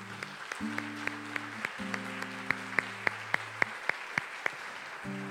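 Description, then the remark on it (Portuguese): A church audience at a Thursday service claps for God in a steady, rhythmic beat, with sharp regular claps standing out over a sustained low musical drone of held chords. “Quinta-feira, por isso que quinta-feira eu quero dar uma salva de palmas a Deus pela vida de vocês que estão aqui pegando o culto em nome de Jesus.”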